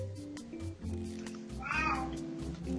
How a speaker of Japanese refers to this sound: あ、声が。声聞こえあ、すいません。これ、うちの猫の声だと思います。すいません。猫だった。